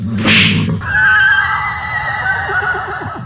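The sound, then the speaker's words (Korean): In a Korean Bible drama, Balaam's donkey brays loudly for about three seconds, starting with a harsh, breathy burst and then stretching into a long, wavering, high-pitched cry with no voices over it. “아이고, 야이 이놈의 나귀가 미쳤나?”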